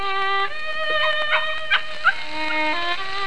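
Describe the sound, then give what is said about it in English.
A couple of short, sharp yips from pet dogs pop out over a steady, sustained melodic violin tone that shifts pitch now and then, in a house in Peckham, south London; the yips are brief. “Quiet, you pups, quiet. Down, down.”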